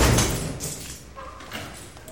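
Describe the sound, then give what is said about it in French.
A glass door of a home is pushed open with a dull thump at the start, followed by a brief rattle and soft shuffling as it swings. No one speaks. “Si c'est chez moi, je sais, parce que c'est une porte en verre et que les autres portes sont pas en verre. J'ouvre.”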